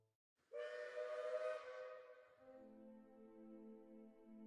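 A loud train whistle blows in one long sustained chord that shifts to a lower, steadier tone partway through, with no voices present.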